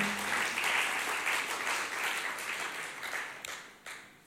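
A crowd applauds steadily, a dense wash of many hands clapping that holds fairly loud for a few seconds, then gradually thins and fades toward the end.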